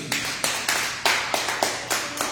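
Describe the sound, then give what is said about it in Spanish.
A church audience applauding the Lord together, with broad, noisy claps surging in a steady rhythm of roughly three beats a second and a continuous wash of clapping between the accents. “de un aplauso Señor, hermanos.”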